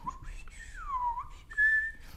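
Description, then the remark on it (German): A person whistles a wavering melody, sliding down in pitch and then holding a steadier, louder high note near the end, heard alone. “Dann dann schweben sie und müssen haushalten mit der Stickluft, verlieren den Boden unter den Füßen, fühlen Schwindel und pfeifen.”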